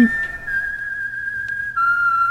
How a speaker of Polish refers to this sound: I przechodzimy do roku 61, w którym czeka na nas pewien gwizdano śpiewany przebój